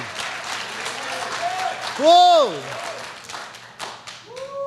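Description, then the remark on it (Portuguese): An audience applauds God steadily, a dense wash of many clapping hands throughout, while a voice cries out a long rising-and-falling exclamation over it and other voices call briefly. “Deus é conosco, aplauda Ele.”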